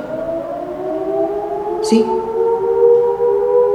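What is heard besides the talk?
siren sounding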